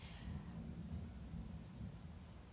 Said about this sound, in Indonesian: ya itu suara petir guys. Kalau aku berhenti berarti ada suara petir.